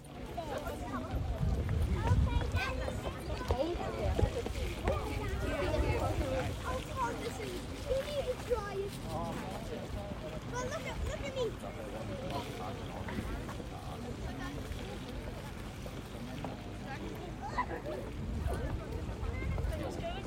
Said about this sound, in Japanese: だからこう何も避けるとかせずにこう体を預けてみんな芝生の上でゴロゴロしていて美術館の中にあるこう丘があるんですけどこんな音ちょっとその音を聞いてもらえますでしょうか。